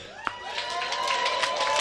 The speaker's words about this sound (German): Und jetzt einen warmen und freundlichen Applaus für euren Gastgeber, euren Host am heutigen Abend,